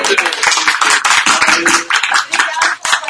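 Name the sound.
clapping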